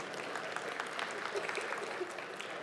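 A church audience claps steadily for a girl who did a good job, a dense wash of many hands at moderate volume with no break, and a few faint voices murmur underneath.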